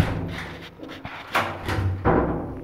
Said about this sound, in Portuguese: Ou seja, a expectativa era tanta que eu saí do elevador e bati na porta errada.